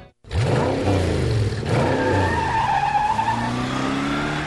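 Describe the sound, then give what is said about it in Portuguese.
A car engine revs hard and loud while tires squeal and skid, the engine pitch rising and falling across several seconds with no one speaking. “Sem a magia do cinema, isso seria só um motorista furioso.”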